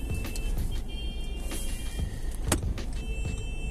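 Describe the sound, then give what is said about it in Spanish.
A steady engine and road rumble from a car being driven through heavy traffic, with occasional sharp clicks and knocks and faint higher whines over the constant low drone. “Yo les había contado que a veces iba a hacer audios mientras manejaba.”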